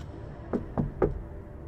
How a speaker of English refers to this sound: three times, on metal screeching ticks and clicks and thumping knocks like erratic heartbeats dancing in her head. What is that sound?